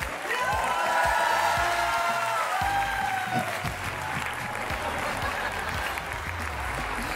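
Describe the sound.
A live television show audience breaks into sustained applause for Ricardo Peralta as the program ends, dense and steady clapping with scattered whoops and cheers, filling the space for several seconds while faint voices mingle underneath.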